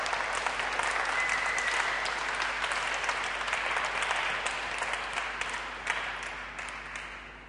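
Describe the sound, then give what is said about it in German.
An audience applauds the band steadily, dense overlapping claps forming a broad wash of sound that holds for several seconds and then gradually thins and fades toward the end. “All denen mal einen ganz großen Applaus.”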